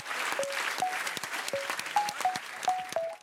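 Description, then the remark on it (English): An audience applauds steadily to thank the debate panel of Hilary Lawson, Matthew D'Ancona and Hannah Dawson, a dense, sustained wash of many hands clapping at once, with a few brief tonal chirps or whistles poking through the noise. “Can you join me in thanking our excellent panel Hilary Lawson, Matthew D'Ancona, and Hannah Dawson?”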